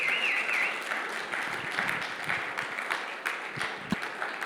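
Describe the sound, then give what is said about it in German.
Sustained applause from an audience for volunteers, a dense steady wash of many hands clapping at a fairly even level, with a few sharper individual claps standing out and no talking over it. “Ja, auch mal einen richtig fetten Applaus.”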